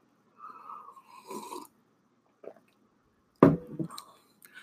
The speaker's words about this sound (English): Let me take a sip.